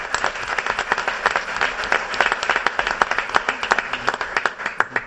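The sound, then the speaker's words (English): A room full of people applauds steadily for about five seconds, a dense patter of many hands clapping at once with no voices over it. “So, a round of applause for that.”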